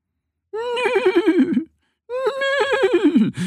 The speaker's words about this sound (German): wiehert es aus der Pferdebox. Annie und Mo flitzen zu ihrer Freundin, der Stute Lisanta.